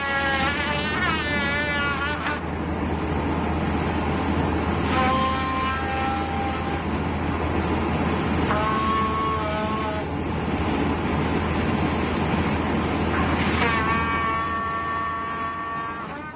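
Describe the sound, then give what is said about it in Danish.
A 27-year-old plays a trumpet inside his Toyota over a constant low engine drone: a quick wavering run of notes at first, then several long, bright, buzzy held tones, all fairly loud. “I sin Toyota, spillende ja. på trompet.”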